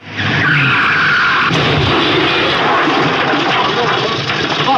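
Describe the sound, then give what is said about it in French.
The famous car accident from Gérard Oury's film released 24 March 1965, with Bourville and de Funès: a car skids with a loud tire screech for about a second, then a sharp crash hits, followed by a sustained, roaring rumble of noise that carries on to the end. “C'est le célébrissime réalisé par Gérard Oury Cornio et avec son célébrissime accident Bourville de Funès”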